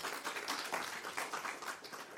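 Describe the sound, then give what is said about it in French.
A crowd applauds with sustained, dense clapping, a steady crackling wash of many hands at moderate volume with no pauses and no voices over it. “Donc un applaudissement nourri pour vous et vous avez le droit d'arriver en retard.”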